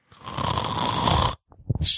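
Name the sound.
imitated loud snoring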